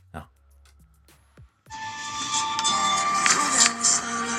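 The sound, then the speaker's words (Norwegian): After a few soft clicks, a loud, continuous mechanical roar with a whining engine tone kicks in and keeps grinding steadily as a man in a demolition machine knocks down a huge apartment block whose windows have all been removed. “sitter i en, i, en maskin, altså, i en, maskin, som jeg tror gjør sånn kan, kan, kan, kan, kan, kan, for å slå ned byggene.”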